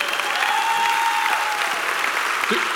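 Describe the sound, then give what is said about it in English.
A crowd claps and cheers steadily, a dense wash of applause sustained throughout, with a whistle rising above it briefly near the start. “Come on, somebody, make some noise for that guy.”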